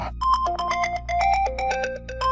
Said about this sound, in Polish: kiedy usłyszał dzwonek telefonu.